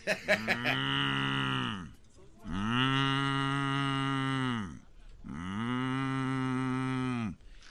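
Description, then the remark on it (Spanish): Three long, loud moos from cows being herded along a roadside in Michoacán, Mexico, follow one another, each a drawn-out, harmonic bellow lasting about two seconds with short pauses between, with no talking. “Les voy a decir el otro día, pues allá en Michoacán estábamos nosotros allá arriando unas mendigas vacas que no eran de nosotros, pero nosotros las cuidábamos.”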